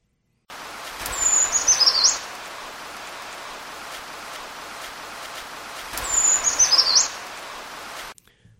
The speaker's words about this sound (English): And the first few times I heard a, a brown creeper song, I was like, "That's a strange sounding chickadee," and it took me a few times before I finally realized, "Oh, this is a, a brown creeper." So here is the brown creeper song.